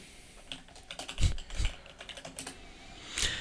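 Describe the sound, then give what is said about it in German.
Irregular clicking of typing on a computer keyboard while searching on Google, with about a dozen quick, sharp keystrokes of uneven loudness, a few heavier taps standing out, and no voices. “Ich würde äh, halt, ich bin gerade noch am Googeln.”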